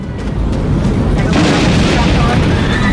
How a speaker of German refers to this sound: Ein blendend weißer Schein, ein Knall, ein Blitz an der rechten Tragfläche zerfetzt jeden Gedanken, den sie eben noch hatte.